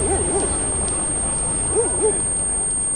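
A thin, steady high-pitched ringing tone, like simulated tinnitus, holds unbroken throughout, while soft owl hoots come in pairs at the start and near the end beneath it.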